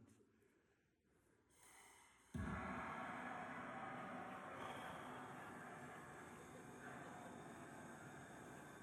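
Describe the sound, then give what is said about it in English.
After a couple of quiet seconds, a Searzall blowtorch attachment searing the outside of a sous-vide filet mignon bursts on with a loud, steady roaring hiss and sizzle that continues unbroken to the end. “After you sous vide it, you use the Searzall on it just to sear the outside of it this was last night as I was making filet mignons.”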